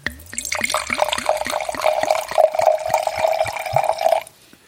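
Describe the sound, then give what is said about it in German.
Water pours steadily into a glass, the splashing pitch climbing as it fills, then stops abruptly after about four seconds. No one speaks. “ich habe mal Wasser im Glas.”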